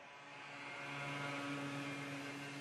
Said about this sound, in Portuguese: Olha o gajo da moto.